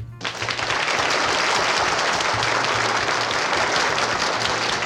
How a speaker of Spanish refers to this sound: Así que ellos cumplen 25 y para celebrarlo, qué mejor que un buen aplauso.